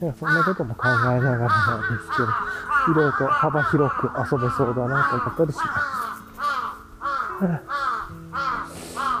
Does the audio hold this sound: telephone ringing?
no